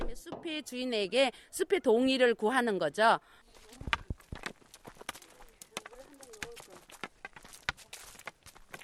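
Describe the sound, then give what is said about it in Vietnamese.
A voice speaks briefly, then a walking stick taps the forest ground again and again as a ritual while walking, in an uneven walking rhythm, sharp dry knocks mixed with footsteps and faint outdoor sounds. “Chúng ta sẽ dùng gậy này gõ túc túc trong lúc đi bộ”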